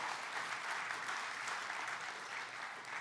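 An audience claps steadily for about three seconds to thank a helper for helping out that morning, a dense, even patter of many hands with no voices cutting through.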